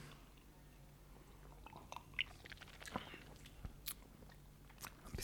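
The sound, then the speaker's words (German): Quiet slurping of a drink being tasted: a scattered run of short wet sips and lip smacks, irregular in rhythm, over a faint low hum. “Naja, dann lasst uns Kosten mal, mal. schlürfen.”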